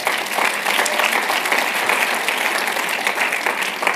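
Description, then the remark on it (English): Sustained applause from a large audience at a church conference, thanking the Chandler staff, a dense steady wash of clapping that stays loud and even throughout with no talking over it. “Can we give them a round of applause?”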